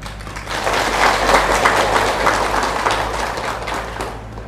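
A room full of people claps steadily for several seconds, a dense, sustained wash of applause that swells slightly in the middle and tapers near the end, with no talking over it.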